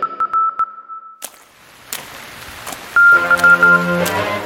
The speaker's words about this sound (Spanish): Un mensaje de texto llegó al comunicador de Kresner. ¿Qué fue eso, Grandurón? Ah, es un mensaje de Acuario.